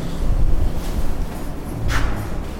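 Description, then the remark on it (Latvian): A small crucible furnace roars steadily with a deep, rumbling, breathy rush, loud, and a brief brighter hiss flares up near the end, while it melts brass scrap. No one speaks. “Mūsu mazā tīģeļkrāsnes šeit kausē misiņu piepildu ar misiņu lūžņiem.”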